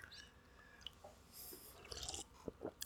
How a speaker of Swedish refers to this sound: Du sitter och suger på en cola eller? Vad sa du? Du sitter och suger på en cola hör jag.